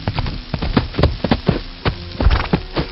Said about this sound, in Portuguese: Vocês esperam uns 40 minutos e lá ao longe já dá para ouvir o galopar de dois cavalos batendo os cascos contra aquele chão de grama molhada.